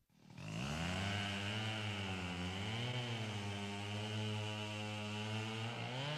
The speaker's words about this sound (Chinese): 伐木工人在树林里伐木，电锯切着树皮，木头屑儿到处飞溅。狮子在森林里睡觉，被电锯的声音吵醒了。